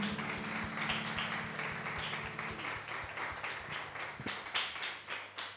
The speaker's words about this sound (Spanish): Le damos un fuerte aplauso a Dios por su amor, por su bondad.